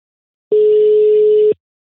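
A single steady electronic phone ringing tone of an outgoing call to someone in Greece plays for about one second, clear and fairly loud, then cuts off into silence. No voices are present.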